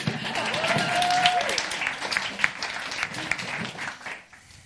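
A crowd applauds a rap or poetry slam performer being introduced, a steady, dense wash of many hands clapping at a moderate level, with a whistle or cheer rising briefly, before the clapping thins and fades out near the end.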